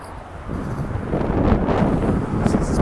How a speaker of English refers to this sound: That is Los Angeles. We're walking over the LA River.